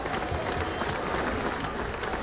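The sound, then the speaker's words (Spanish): A steady burst of applause celebrating the 400th programme of Frecuencia Noticias, many hands clapping in a dense, even wash of sound for a couple of seconds, with no voices standing out over it. “Sí, señor un aplauso por, por llegar a este programa número 400.”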